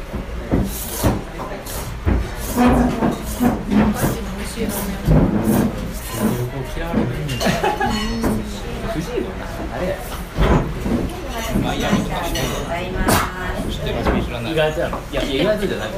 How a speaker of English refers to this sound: What you're now listening to is a secret recording of the sounds that are made in a ramen restaurant in old Kyoto. It is customary to slurp your soup through your teeth.